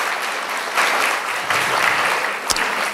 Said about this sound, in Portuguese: Vamos salva de palmas, Senhor, gente.